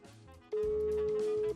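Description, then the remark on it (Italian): A telephone ringback tone sounds once during an outgoing call from a radio program: a single steady, pure beep lasting about a second, loud, over a faint busy background. “Squilla.”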